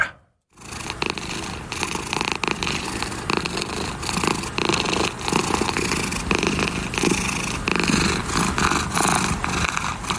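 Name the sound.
cat purring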